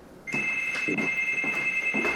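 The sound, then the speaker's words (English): An apartment door buzzer rings with a steady, shrill electronic tone, sustained and fairly loud, with a faint rhythmic pulsing beneath it. No one speaks. “You getting a phone call? Uh, it's my door.”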